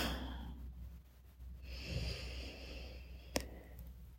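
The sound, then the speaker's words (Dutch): A long, deep breath pushed out audibly, a soft airy exhale, with a brief faint click near the end and no talking. “En dan gaan we ons even focussen op onze ademhaling, want we gaan het even uitademen.”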